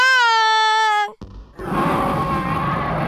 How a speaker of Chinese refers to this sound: 伴随着咆哮声，魔法霸王龙带着胡西西冲破了云层，飞到了哈哈哈男爵面前。